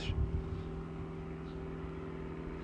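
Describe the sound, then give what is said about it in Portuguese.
A steady, droning airplane engine hums continuously overhead at an airport, a low rumble with a sustained tonal whine that stays even in loudness throughout, with no voices. “Já é um avião.”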